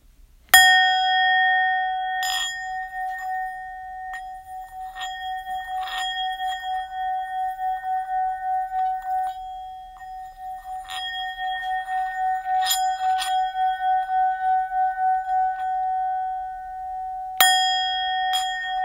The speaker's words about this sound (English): And we're going to go ahead and close this out with the bell.